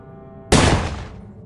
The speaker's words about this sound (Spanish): Los tímpanos de Artyom estaban ensordecidos por culpa del disparo y de los ecos que éste había arrancado al túnel.